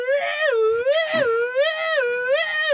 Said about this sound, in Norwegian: trikken stoppa altså, sekundet man kunne høre sirener. Og politibetjenten håndhilste til eh, trikkesjåføren som takk.